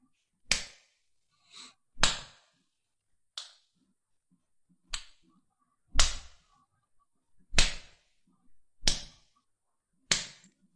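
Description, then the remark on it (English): Sharp, loud slaps strike one after another at an uneven pace, about seven or eight crisp smacks with brief silent gaps between them and no talking. “Uh, so this is the sound of a slap.”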